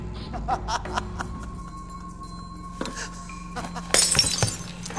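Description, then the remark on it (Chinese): A man laughs in short bursts, then a thrown glass cup suddenly smashes loudly near the end, bursting into a bright, crackling scatter of shards that rings briefly. “正当利根川浪笑的时候，一个杯子砸过来。”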